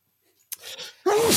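A single loud sneeze: a sharp intake of breath, then an explosive, noisy burst with a brief voiced 'choo' at the end.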